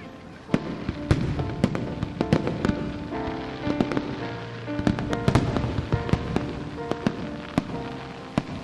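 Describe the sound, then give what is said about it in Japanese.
Fireworks bursting overhead at the Nagaoka fireworks festival in an irregular volley, sharp booms landing every second or so over a constant crackling, hissing wash that keeps the air full between the louder explosions. “長岡の花火大会人の数トイレに並ぶ行列の長さ打ち上げられる花火の大きさそのどれをとってもスケールは想像以上だった”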